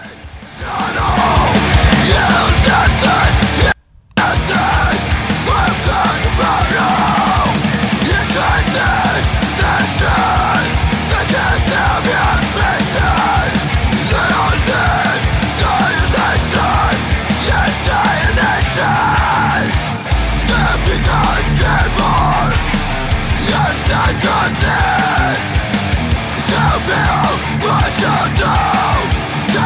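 A loud, dense hardcore punk song by a band from Beijing, with shouted, yelling vocals over pounding drums and distorted guitars, relentless throughout apart from a split-second cut near the start.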